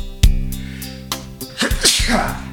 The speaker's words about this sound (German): Gleich muss ich niesen, Leute.